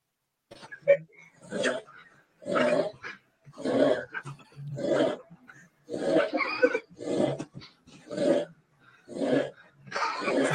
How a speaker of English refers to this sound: Is he snoring? Yeah, he's, look. oh, this is so good. Look, they're snoring, boy like, it, it, it, bro is snoring point every one point seconds.